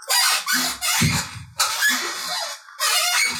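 An old rocking chair creaks loudly, three long, strained squealing groans in a steady back-and-forth rhythm, with no voices.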